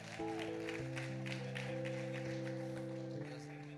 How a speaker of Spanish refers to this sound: Den un aplauso